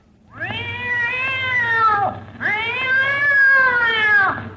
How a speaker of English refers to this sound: I told you not to step on that cat's tail. I don't see any cat. There is no cat, just the tail.